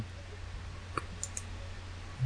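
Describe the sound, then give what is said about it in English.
A few quick, light clicks of someone tapping through photos of Joe Budden's girlfriend on a device, spaced unevenly over a couple of seconds against a quiet, steady low hum, with no talking. “I'm I'm quickly clicking through her.”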